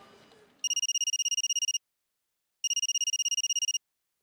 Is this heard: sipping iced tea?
no